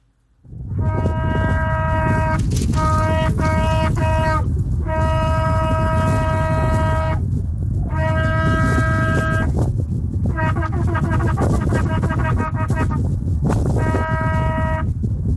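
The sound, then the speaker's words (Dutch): A shofar, a ram's horn, blown from the Mount of Olives sounds a series of calls: long sustained blasts alternating with broken notes and rapid staccato bursts, bright and loud, over a steady low rumble of wind in the microphone. “Ze hebben de shofar, de shofar wordt dan geblazen.”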